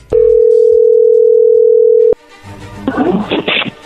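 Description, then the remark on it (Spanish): A steady, loud telephone dialing tone as an outgoing phone call is being placed holds one mid pitch for about two seconds, then cuts off abruptly, followed by faint clicks and a burst of muffled, noisy line sounds. “ahí se está marcando, ya no haga ruido.”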